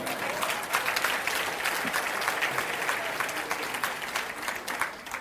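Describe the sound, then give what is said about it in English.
A crowd applauds steadily, many hands clapping in a dense, continuous patter that holds at an even level for several seconds with no voices on top; the audience claps to show they get the speaker's point. “If you get my point, clap your hands, would you?”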